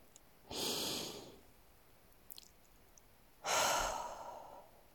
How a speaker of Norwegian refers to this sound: Trekk pusten godt inn.